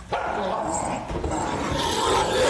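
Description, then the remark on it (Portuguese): Three wolves chained to an iron rod at the base of a stalagmite snarl and growl, a harsh, continuous rumble of overlapping snarls that stays loud and restless throughout, with a few sharper barking edges mixed in. “Rosnados selvagens e o som de correntes chocalhando chegam aos seus ouvidos, indicando onde três lobos estão acorrentados.”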